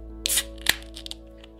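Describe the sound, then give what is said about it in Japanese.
A beer can being opened: a short airy hiss and a sharp metallic click, followed by a few faint fizzing ticks in otherwise quiet surroundings. “ということでビール開けてます”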